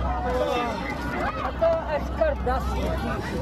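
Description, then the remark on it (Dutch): Panicked passengers cry out together in an airplane cabin shaking during landing over India, a dense hubbub of agitated voices with sharp raised shouts over a steady low engine rumble. “er ontstond toch best wel wat paniek. Want het hele vliegtuig begon te schudden en ze waren eigenlijk al bezig met de landing”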